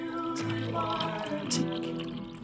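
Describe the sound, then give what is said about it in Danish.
A wife pours coffee steadily into her husband's cup at a kitchen table: a continuous liquid stream with a rising, filling tone and small splashy bursts, heard on its own without talk. “Konen skænker op, i det samme som mandens kop er tømt.”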